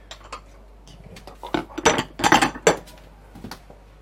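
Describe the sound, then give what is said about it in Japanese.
Metal utensils clink and clatter in a few irregular bursts, with scraping and rattling as coffee beans are scooped and poured while making coffee, loudest in the middle and tapering off. “結構楽しいですよコーヒー豆入れるの”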